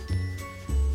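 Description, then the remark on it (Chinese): Two steady, tonal beeps, a sound coming from inside an egg, sound one after the other, each lasting about a third of a second, clear and fairly loud, with no talking. “那是从蛋里面传来的声音哦。”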